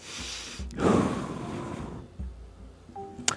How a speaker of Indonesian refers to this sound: Jika Anda sudah mulai cemas, tenangkan diri Anda dengan teknik relaksasi. Misalnya menarik nafas yang panjang.